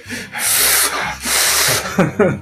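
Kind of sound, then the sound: vocal imitation, imitated heavy panting breaths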